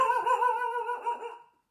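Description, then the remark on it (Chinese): A dog lets out one long, whining bark, high and tonal, wavering in pitch for about a second and a half before trailing off. No voices are heard. “狗都不听。 干啥呢？干啥？他对我有什么意见啊？”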